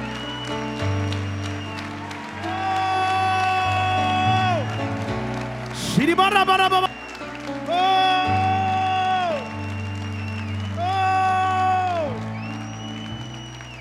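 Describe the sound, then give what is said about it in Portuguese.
An audience claps and cheers steadily for about fourteen seconds in praise of God at a church service at the start of the new year 2018, the applause a continuous noisy wash beneath loud, sustained music with long held notes and sliding tones. “Aplauda o Senhor.”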